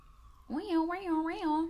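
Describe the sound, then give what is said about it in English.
A voice mimics an emergency vehicle siren, a sung wavering wail that rises and falls about three times in quick succession, fairly loud, starting after a brief quiet moment. “Also, you guys hear sirens around oh, on our podcast a lot.”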